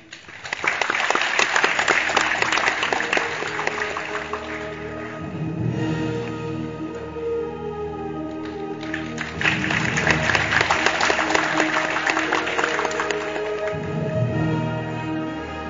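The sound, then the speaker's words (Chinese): An audience at Fudan University breaks into sustained applause welcoming pipa player Zhao Cong as Professor Xu Lei presents an appointment letter, many hands clapping in a dense, steady patter that swells, eases slightly midway, then surges again before tapering. No one speaks. “掌声有请赵聪老师，请徐雷教授为赵聪老师颁发聘书。”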